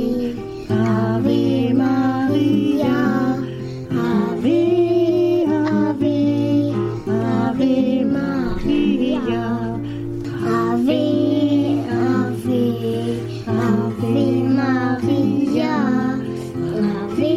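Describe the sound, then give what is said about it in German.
A bright recorded jingle plays loud, a tuneful melody over sustained harmonies and a steady bass, running continuously for the whole stretch with no talking over it. “Aber jetzt fangen wir erstmal noch an mit dem Jingle, den wir aufgenommen haben.”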